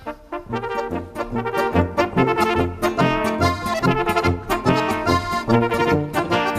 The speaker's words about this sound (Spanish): Em, como tantas cosas de la música norteamericana, en realidad venía de Centro Europa. Atentos a cómo suena esta polca tirolesa.